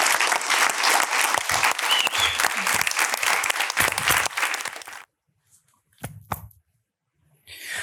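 Audience applause, a dense, loud wash of many hands clapping for about five seconds, then cutting off to near silence with a couple of brief stray sounds before faint noise returns.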